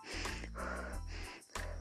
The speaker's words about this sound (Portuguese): A regulação da nossa respiração, ela pode ser parcialmente voluntária. Nesse tipo, se eu quiser respirar agora, eu respiro.